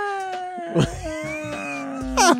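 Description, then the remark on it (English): A drawn-out, wavering meow sung by a human voice imitating a cat, held steady with a slight rise and fall in pitch, punctuated by two soft breathy bursts, moderately loud. “Meow. Plummeted to the ground. Thank God for nine lives.”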